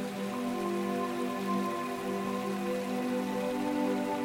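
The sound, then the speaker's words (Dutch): A flowing waterfall, heard from a bridge beside it, rushes in a steady, even hiss with no breaks, while soft sustained tones hum beneath it; no one speaks. “En we staan niet voor niks op die brug bij die waterval, die stromende waterval.”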